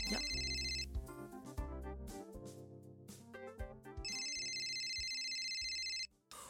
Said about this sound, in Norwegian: Ja, jeg tror vi ringer han opp.